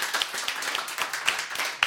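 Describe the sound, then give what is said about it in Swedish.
Applause from a small group, a steady crackle of many overlapping hand claps with a few sharper individual claps standing out, fairly loud and sustained without talking. “Applåd”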